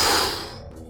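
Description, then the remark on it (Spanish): A voice imitates coins suddenly shifting and sliding with a single breathy, hissing whoosh that starts loud, then fades out within a second. “Y vemos cómo de golpe las monedas hacen...”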